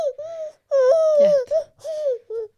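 A baby in a baby carrier cries after a nightmare, in a series of five high, wavering wails separated by brief gasping pauses, loud and strained, with no other voices present.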